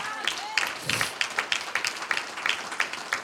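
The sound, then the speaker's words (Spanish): A church audience breaks into applause for the Lord during a sermon, a steady crowd of overlapping claps with a loose rhythmic pulse, moderately loud, with a few faint voices calling out near the start. “Un aplauso al Señor.”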